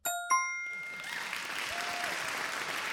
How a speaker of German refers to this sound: Ich finde, an dieser Stelle kann man dann tatsächlich auch nochmal klatschen.